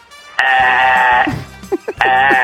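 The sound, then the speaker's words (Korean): A voice imitates a coffee machine as an entry in a voice-impression contest: a loud, buzzy, steady whirring drone, then a few short sputtering pops and gurgles, before the droning whir starts again. “어, 커피 머신 하고 커피 머신 갑니다.”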